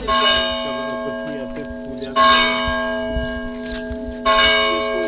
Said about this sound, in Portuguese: O sino chama para a missa, mas neste dia, dois meses após a chegada à crença, as badaladas assinalam também o regresso do mercado da aldeia, mais de 30 anos depois do último se ter realizado junto ao largo da igreja,